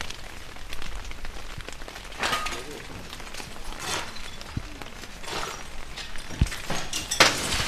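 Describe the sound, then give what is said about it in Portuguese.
Steady rain patters on a hard surface, a dense hiss with scattered drips and taps, plus one or two sharper clinks toward the end. “A chuva, que havia de chegar mais cedo, caiu cinco dias depois do dia pior”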